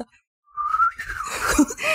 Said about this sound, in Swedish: Oj det var ett svagt vissel okay. för jag har så stora läppar.